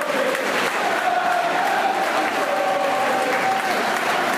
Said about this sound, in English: And the players take the applause as they walk off.